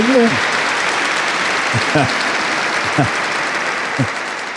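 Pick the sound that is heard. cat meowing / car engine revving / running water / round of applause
round of applause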